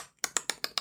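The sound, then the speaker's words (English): A mouth imitating masturbation sounds: five quick, evenly spaced wet clicks in a steady rhythm, fairly loud, with no talking. “What does that sound? That's the sound of him masturbating.”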